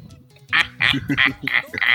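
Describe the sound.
A voice imitates the Joker's giggle in a rapid series of about five nasal, honking bursts that sound like a quacking duck, loud, with no other talk.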